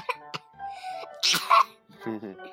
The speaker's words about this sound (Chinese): 哦哦，谁打了个喷嚏？